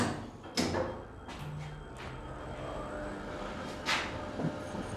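Heavy freight-passenger elevator doors slide smoothly closed along their track with a steady mechanical rumble, punctuated by a few sharp knocks and clunks as they close. The elevator is controlled by a frequency converter that gives the doors a smooth close. No voices.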